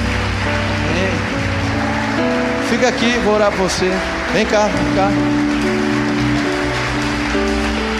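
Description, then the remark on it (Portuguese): A church audience applauds, in the name of Jesus, people coming forward for prayer, in a steady, dense patter of clapping that runs the whole time, while a man speaks loudly over it. “Eles vão aplaudir essas pessoas em nome de Jesus?”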